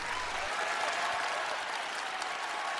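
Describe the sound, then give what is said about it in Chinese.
Steady, dense applause from a large live audience at the final of The Voice of China season 3, a continuous crackle of many hands clapping at a constant level with a faint crowd murmur underneath, no distinct voices standing out. “嘿，给点掌声！”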